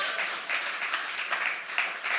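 An audience at a church clapping steadily, a dense patter of many hands with small swells in intensity, no voices standing out over the applause.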